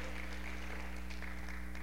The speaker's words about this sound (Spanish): ¿Sí puedes aplaudir, es, es bueno, es válido.